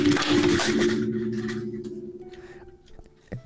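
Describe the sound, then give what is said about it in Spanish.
Loud rustling clatter as a cat knocks headphones off, scraping against the microphone for about a second, then a low steady hum lingers with a couple of faint knocks. “No, perdón, fue mi gata, fue mi gata que me, me, botó los audífonos.”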